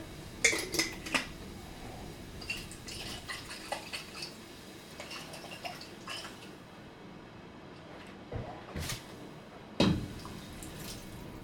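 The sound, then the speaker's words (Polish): Water sloshes and splashes inside a bottle of concentrate as it is rinsed out and poured into a pot, with clinks of glass or metal against the pot, fairly quiet, in a few short bursts with brief pauses. “żeby wykorzystać cały koncentrat, przepłukujemy butelkę.”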